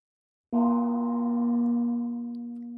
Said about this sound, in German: Ich will meinen Gong.